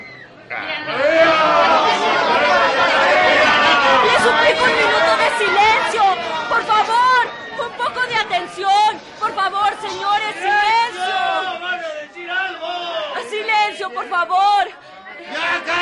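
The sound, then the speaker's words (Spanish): A dense crowd of reporters, media and fans of a singer chatters at once in a bar, a steady loud babble of overlapping talk with no single speaker standing out, continuing throughout with brief dips in volume. “Ante los periodistas y los medios de comunicación, así como un sinfín de seguidores de la cantante, ávidos por escucharla,”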